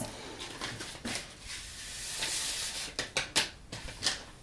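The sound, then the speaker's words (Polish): A spoon stirs jelly powder into just-boiled water in a pot with circular motions, making soft scraping swirls broken by several sharp clinks against the sides, fairly quiet, with no voices. “I okrężnymi ruchami e, mieszamy, tak aby nie pozostały żadne grudki i takie miejsca nadmiernie zagęszczone.”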